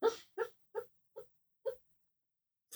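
A dog whimpers while dreaming in its sleep, letting out about six short, muffled yelps at uneven intervals, fairly soft, with quiet pauses between them.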